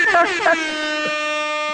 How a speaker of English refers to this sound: Can we get an air horn for the Rona cough right there? Hold on.